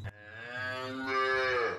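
A single long cow moo, drawn out for nearly two seconds with a rich, steady lowing tone that swells slightly near the end, clear with no voices around it.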